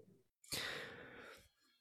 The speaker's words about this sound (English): Yeah, I've I've just heard a lot of oh, a yawn.